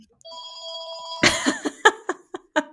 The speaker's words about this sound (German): Oh, oh, mein Telefon klingelt. Dein Telefon? Ja. Habt ihr ein Haustelefon? Ja, ja.